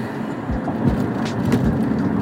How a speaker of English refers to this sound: Yeah, good old Hollywood. Just LA in general. Man, it is 8 after 8 o'clock and the traffic is still humming hard big time.